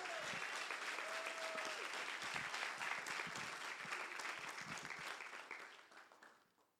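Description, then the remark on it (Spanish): A church audience breaks into loud, sustained applause for Jesus, dense overlapping claps holding steady for several seconds before fading out toward the end, with a few voices calling out beneath it. “Si usted lo quiere, denle un aplauso más fuerte a Jesús.”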